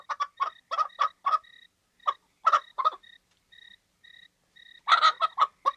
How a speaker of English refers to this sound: As a matter of fact, there was a chicken on the bus. and it was driving me crazy. Every time it made a noise, I was sure the Chinese would hear it and find us.